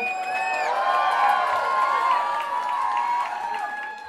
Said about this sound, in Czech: Prosím ještě jeden velký potlesk pro ní a pro její kapelu.